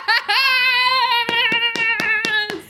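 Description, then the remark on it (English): Six or so sharp hand claps in a quick, uneven rhythm, seal-style, sounding over a loud, sustained, wavering vocal tone that starts just before them. “…, just clap like a seal.”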